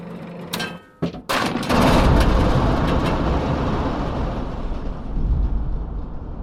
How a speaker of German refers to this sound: Mm, ja, es gab so eine Gewitterszene und da ist halt Blitzeinschlag und dann ja, ja. entsprechend der Donnerkasten.